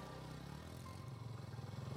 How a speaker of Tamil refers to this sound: bike நின்றதும் டக்கென்று இறங்கி okay bye என்று கூறிக்கொண்டே வேகமாக நடக்க ஆரம்பித்தாள்